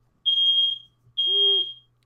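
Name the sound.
fire alarm beeping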